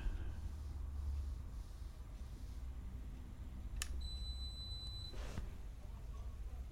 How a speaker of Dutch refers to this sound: Oh, en, en, en niet een aanhoudende piep? Nee. Oh, dit is de afwasmachine dan die klaar is. Oh, hoe lang duurt dit? Nou, het piept wel dan net iets te vaak, maar ook weer niet uren.